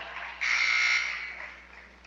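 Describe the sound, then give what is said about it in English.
A loud, harsh electronic gym scoreboard buzzer blares for about half a second, sounding inadvertently after a free throw during a basketball game, then trails off into a fading echo, with no talking. “inadvertent buzzer after the free throw.”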